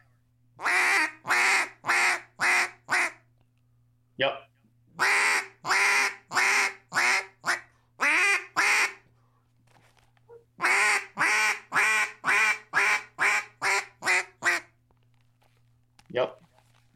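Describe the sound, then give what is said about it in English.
A duck call blown in mallard-style quacks during a calling lesson, the notes barked too hard: three loud runs of raspy, nasal notes, the last long and quickening toward the end, with a brief spoken word near the finish. “So my thing would be that you are for you're almost barking in it too much for that note.”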